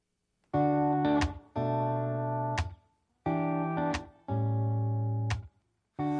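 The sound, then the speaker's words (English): A pop track plays clearly, with bright sustained synth chords arriving in rhythmic blocks separated by brief gaps and sharp accents, no talking over it. “Well, listen to a song when we come back.”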